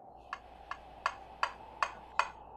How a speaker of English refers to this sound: And then I heard it a tapping on the window. At first, I thought it was a loose shutter, and then I realized it wasn't.